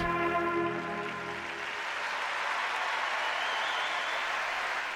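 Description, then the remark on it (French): A large arena crowd at a figure skating competition applauds loudly and steadily after Surya Bonali's performance, a dense wash of clapping that carries on unbroken, with faint musical tones fading out beneath it at the start. “Et puis, écoutez le public.”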